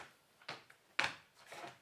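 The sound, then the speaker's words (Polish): Slippers flap against the floor in a few soft, irregular slaps as someone shuffles along, fairly quiet, with no talking. “A to moje klapeczki.”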